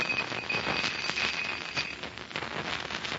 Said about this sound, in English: Now then, a bit of Chinese magic right before your eyes, gentlemen. I take a handful of these steel filings and scatter them inside the cylinder.